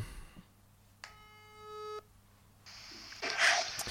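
A steady electronic telephone busy tone sounds for about a second, a flat harmonic hum, after a brief click as a correspondent hangs up the phone, followed by a burst of rustling noise near the end.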